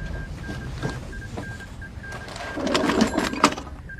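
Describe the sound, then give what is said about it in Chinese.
An old field telephone is rung to call the forward positions: a steady run of short, high beeping pulses, then a burst of rapid mechanical clattering and ratcheting. No one speaks. “给前阵地打电话，问问发生了什么事。”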